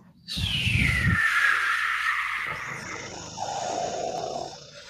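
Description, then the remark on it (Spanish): Airplane engines sputter and wind down as the fuel runs out while flying over the Bay of Bengal, a loud whine sliding steadily lower over rough low rumbling, then fading into a thinner, uneven drone as power gives out and the plane loses altitude. “Ah, ¿y qué es ese ruido en los motores?”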